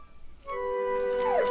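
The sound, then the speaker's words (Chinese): A rescue dog named Radar whimpers in one sustained, high-pitched whine that starts after a brief quiet moment and ends with a falling, wavering pitch. No one speaks. “雷达怎么了？也许他察觉到危险了。 嗯别犯傻了，它只是只狗。”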